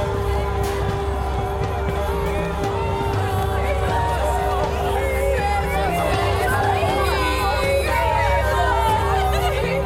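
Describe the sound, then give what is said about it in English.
In an audio production of Shakespeare's Coriolanus, a crowd of Roman townspeople, the masses, shouts and clamors together, a dense, steady roar of many overlapping voices with occasional sharper cries rising above the din for the whole stretch. “We loved him, but like beasts and cowards, gave over to the masses who shouted him out the city. Here come the masses.”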